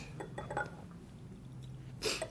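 A few light glassy clinks near the start, then a louder, bright clink of glass against glass, with faint pouring or handling noise, as a drink is poured into a glass and handed over.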